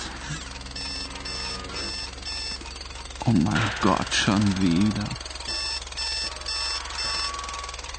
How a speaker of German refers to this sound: Wenn der Wecker dröhnt. Wenn der Wecker dröhnt.